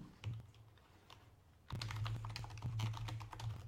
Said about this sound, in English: And if you hear my super clickety clackety keyboard, don't mind it.